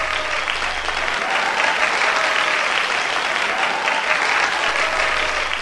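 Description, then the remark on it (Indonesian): A large audience applauds steadily in a reverberant performance hall as Toby's piano recital ends, a dense, loud wash of clapping that holds from start to finish with no voices standing out. “Gedung pertunjukan bergemuruh. Suara-suara simpang siur terdengar.”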